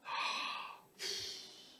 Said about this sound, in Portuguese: Que, fala a verdade, tem coisa melhor do que um cultinho online, daquele que você dá aquela bocejada,